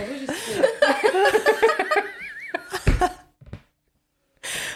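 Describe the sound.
Laughing and giggling voices with wavering pitch, then a single abrupt cough bursts out, followed by a short breathy sound before a brief silence.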